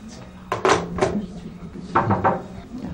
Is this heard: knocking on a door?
yes